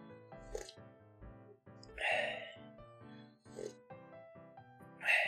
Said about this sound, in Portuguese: Deixa eu dar uma olhada se meu chá está bebível, porque Acho que eu esquentei um pouco demais a água hoje.